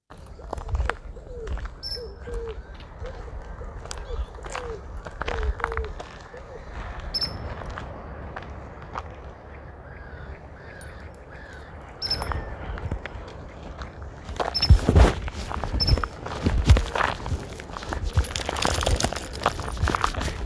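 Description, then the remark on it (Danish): A person in shoes crunches steadily along a gravel road, the footsteps growing louder toward the end, with faint outdoor ambience and occasional high chirps in the background. “Det er en homo sapiens, der går rundt på en grusvej”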